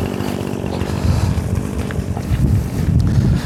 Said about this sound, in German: Wir hören den Leerlauf einer Kettensäge. Das ein äußerst typisches Geräusch seit fast 24 Stunden hier bei uns.